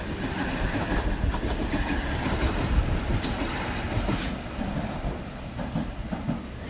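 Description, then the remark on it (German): A train on the mountain line reaches Bernina Hospiz (Ospizio Bernina) station, the highest point of the line at 2253 metres above sea level, rolling steadily along the track: a continuous low rumble with faint rhythmic clatter of wheels and occasional brief high metallic tones, no voices. “Mit dem Bahnhof Hospizio Bernina, dem Bernina Hospiz, erreicht der Zug den höchsten Punkt der Strecke, 2253 Meter über Meer.”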